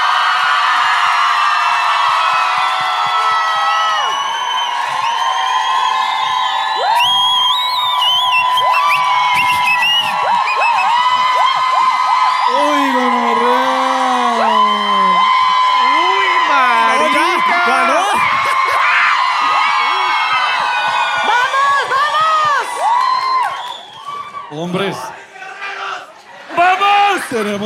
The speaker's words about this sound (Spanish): Un aplauso por nuestra concursante.